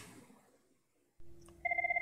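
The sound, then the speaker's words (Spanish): A telephone on a desk starts ringing again near the end with a fast, warbling electronic trill, loud, after quiet and a low hum that comes on just before. “El teléfono volvió a sonar.”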